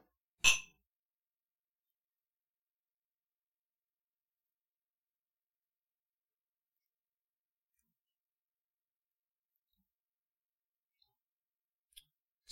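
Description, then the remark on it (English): A single bright clink of glasses of Redemption Rum Cask Finish Bourbon (94 proof) touching in a toast, crisp, ringing briefly before long silence, with a couple of faint small clicks near the end. “Cheers. Cheers.”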